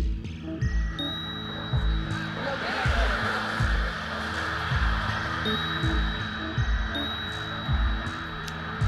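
Steady footsteps thud along at an even walking pace outdoors, crossing a huge green field through a former railway zone in Tilburg, Netherlands, on an ice-cold, clear February morning, over a wide open ambience with a faint high-pitched tone drifting in and out.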